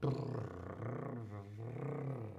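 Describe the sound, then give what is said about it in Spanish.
A person imitates a cat's purr with a steady rolling rumble in the throat, held for about two seconds at an even loudness, with a brief dip near the middle. “Los gatos ronronean, el ronroneo, sí, los gatos hacen”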